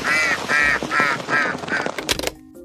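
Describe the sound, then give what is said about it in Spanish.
A duckling quacks five times in a steady, evenly spaced series of bright, nasal calls, followed by a brief burst of clattering and rustling before the sound cuts off. “¿Dónde está mi patito de goma? Nunca dije que estaba hecho de goma.”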